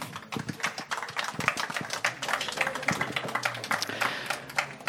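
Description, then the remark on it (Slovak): An audience at an evening talk about the book Utopia v Leninovej záhrade applauds, a dense, steady crackle of many hands clapping that holds for about five seconds with no voices over it. “Môžete zatleskať.”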